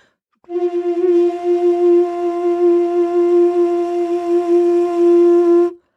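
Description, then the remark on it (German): A single sustained note played on an alto recorder while singing the same pitch into it, giving a steady, buzzy, reedy tone held for about five seconds, with no talking. “Wenn ich jetzt einen Ton spiele auf der Altblockflöte jetzt in dem Fall und ich singe den gleichen Ton in die Flöte rein,”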